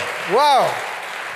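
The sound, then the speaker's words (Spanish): An audience applauds in a steady, noisy wash of clapping, with one voice letting out a rising and falling cheer over it partway through. “Se merece el Señor un fuerte aplauso por lo que declaró en esta palabra.”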